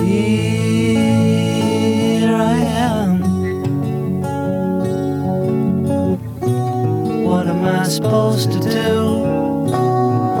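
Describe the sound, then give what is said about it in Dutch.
A man sings a slow, plaintive melody over a single strummed acoustic guitar, the voice steady with no other instruments joining in; the original take 9, one guitar and one voice, a single vocal without phasing. “Want de oorspronkelijke take 9 staat natuurlijk ook op de box. Met één gitaar en één stem.”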